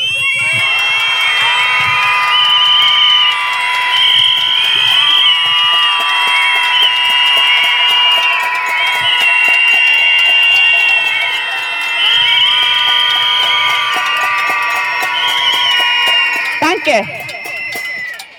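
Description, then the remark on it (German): A large crowd screams together in protest against the murder of women, a sustained, high-pitched roar of many voices, holding loud and steady for about seventeen seconds before breaking off abruptly. “Das ist zum Schreien.”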